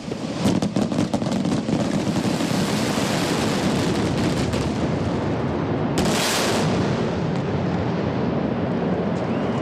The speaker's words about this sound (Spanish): porque hoy es la descarga de Cangas. Un aplauso. ¡Bravo! Que suenen los voladores y los petardos.